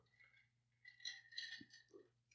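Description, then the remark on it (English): Ice cubes clatter and rattle inside a travel mug holding a drink in a couple of irregular bursts, with a faint steady hum underneath and no talking. “Did you did you put an, a drink in your travel mug that had ice in it?”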